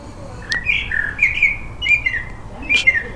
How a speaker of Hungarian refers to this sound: Csak tippelek, hogy ez egy fekete rigó. Fogalmam sincs, hogy ez milyen állat. Csak megnyugtat a hangja.